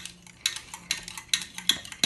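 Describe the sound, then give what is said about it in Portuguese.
A spoon stirs a caramel-coloured aniline dye mixture in a bowl in a kitchen, clinking against the sides in a steady rhythm of bright metallic taps, about every half second, with soft scraping between them and no talking. “Mexe, Nossa, ó, tá mistura né?”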